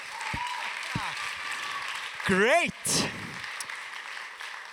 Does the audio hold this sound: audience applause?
yes